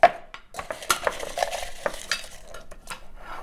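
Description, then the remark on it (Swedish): Two dice rattle and clatter steadily as they are shaken and thrown for a few seconds, a busy run of sharp, bright clicks and knocks with a few louder taps, and no voices. “Ja men när man ska kasta tärning så kan man göra, man har två tärningar.”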